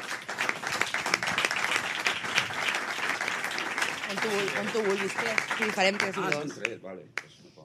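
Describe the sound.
Sustained applause from an audience for a performer being introduced at a comedy show, dense and steady for several seconds, with voices and cheers rising through it before the clapping thins out and stops near the end.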